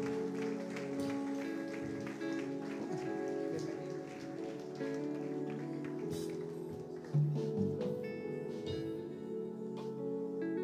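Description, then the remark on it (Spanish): An audience applauding, a steady, dense wash of clapping that holds for about ten seconds over sustained musical tones, with a brief louder swell partway through. “Denle un fuerte aplauso a estas.”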